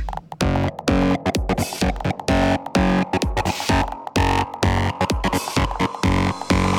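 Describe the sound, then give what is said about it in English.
Loud electronic music drenched in heavy distortion, a thick, saturated, buzzing wall of sound that pulses in choppy rhythmic bursts with brief gaps, with no voices. “Okay, now, we need some fat distortion.”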